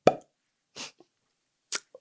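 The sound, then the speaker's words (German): A sharp mouth pop imitating a cork pulled from a wine bottle, loud at the start, followed by a few softer breathy noises and small clicks. “Und ich nehme mit meine eigene äh, Weinflasche. Plopp.”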